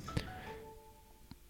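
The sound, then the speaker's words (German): A faint mobile phone notification chime: a couple of thin electronic tones held for about a second, with soft taps just before and after, no one speaking. “Das war mein Handy.”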